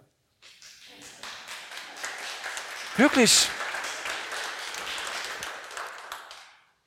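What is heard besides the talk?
audience applause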